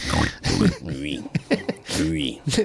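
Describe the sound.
A person imitates a pig with a string of loud, snorting oinks and grunts in quick bursts, with breathy snuffling sounds between them.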